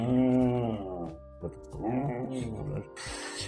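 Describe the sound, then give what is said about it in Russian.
A voice mimics a parked Tesla's climate system starting up as it keeps running the air conditioning and heating for about 10 minutes after parking: a low, droning hum that wavers and groans for a few seconds, then breaks into a short breathy hiss like rushing air. “Он э, когда включает, если машина, она же когда ты Теслу поставил, она еще минут 10 спокойно так гоняет кондиционер и, и греет, и, и он так когда включается, такой”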